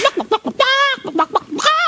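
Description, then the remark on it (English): A chicken sound effect button is pressed: a quick run of short clucks, then a long drawn-out squawk, a few more clucks, and a final rising squawk, loud with no talking. “you get the chicken.”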